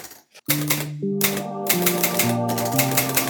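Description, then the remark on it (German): A short "Aufsatz der Woche" segment jingle: a stepping melody of sustained synth-like tones layered with brisk typewriter clacks, bright and fairly loud, with no voices. “Dann haben wir auch rausgefunden, wie wir unseren tollen Aufsatz der Woche Jingle abspielen, sodass wir ihn beide hören können.”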